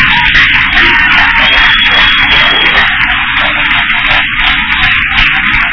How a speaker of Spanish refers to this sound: Dale un aplauso al Padre.